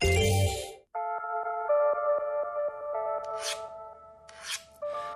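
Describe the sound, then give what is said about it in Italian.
A metal blade is scraped against a sharpening stone in a few rasping strokes, while a steady metallic ringing hums underneath with faint rhythmic ticks. No voices. “Anche il metallo più resistente può essere affilato come la lama di un rasoio. Si è sfregato sulla pietra.”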